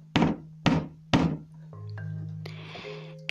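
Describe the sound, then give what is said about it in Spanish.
Three heavy, booming thuds strike a door in a slow, even rhythm, loud, followed by a low droning hum and eerie tonal sounds. “Todo empezó a ponerse negro y se oyeron unos poderosos golpes.”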